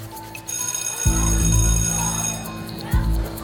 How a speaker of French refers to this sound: La cloche sonne, ils se précipitent dehors.